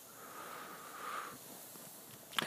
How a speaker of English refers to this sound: My lovely Labrador is wandering around, having a sniffle around to see what he can smell.